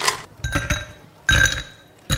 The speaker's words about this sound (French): Pour faire un Negroni, un pas parfait, on prend un mixing glass, un verre à mélange, on met du coup à l'intérieur des glaçons, on le remplit complètement.